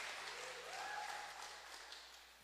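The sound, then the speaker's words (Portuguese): A crowd applauds steadily for visitors, a dense wash of many hands clapping at an even level for a couple of seconds, slowly tapering off at the end, with no voices over it. “Eu queria pedir uma salva de palmas para os nossos visitantes.”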